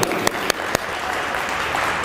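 An audience applauds a woman present in the hall, a dense wash of overlapping handclaps with a few sharper individual claps standing out near the start, holding at a fairly loud level throughout.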